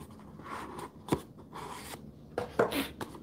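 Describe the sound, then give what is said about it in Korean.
Quiet rustling and scraping as paper cups are handled on a tabletop, brought out to demonstrate the concept of dimensions, with a few sharper taps and knocks at irregular moments and no talking. “제가 차원을 딱 설명하려고 종이컵을 딱 가져왔어.”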